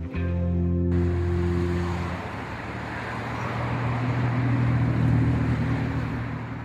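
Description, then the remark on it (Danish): Steady roar of traffic on a busy street in Denmark, a dense wash of many passing cars with low engine rumble throughout, fairly loud and continuous with no one talking. “Det her det er lyden af en øh, hvilken som helst trafikeret gade i Danmark – som øh, gør, at der er støj, at der er partikelforurening, at der er larm, og at der er mange biler, der kører på det samme stræk, fordi folk måske skal på arbejde.”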